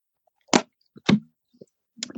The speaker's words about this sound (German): Ich trinke mal kurz einen Schluck Wasser, ich merke ja.